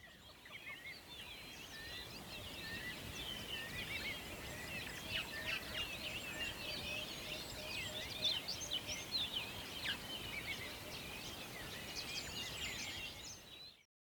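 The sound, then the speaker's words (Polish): A dense chorus of birdsong, many birds chirping and trilling at once in high, overlapping calls, steady and continuous for about fourteen seconds with no voices. “Najpierw jingle, czyli 15 sekund śpiewu ptaków, a później nasza rozmowa.”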